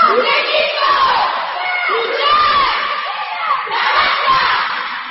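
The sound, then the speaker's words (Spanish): A group of young girls from a Castilla-La Mancha handball team shouts their team cry together at a children's handball tournament, a loud, energetic chant, many voices overlapping in rising and falling calls, continuous. “el grito de Castilla-La Mancha.”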